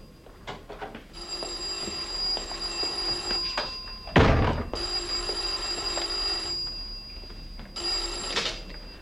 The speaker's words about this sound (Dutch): Oh, telefoon. Wacht, ik ga wel even.